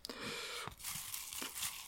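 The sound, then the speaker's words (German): Continuous crinkling and rustling of paper lots being mixed for a prize draw of four winners, with a few sharper crackles and tearing-like bursts, fairly quiet and steady throughout with no voices. “So, ihr hört es rascheln.”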